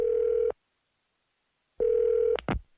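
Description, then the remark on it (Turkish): A telephone rings twice with a steady electronic tone, a long pause between the rings; the second ring is cut short by a sharp click, like a handset being picked up. “Bir gün sizin de telefonunuz çalacak.”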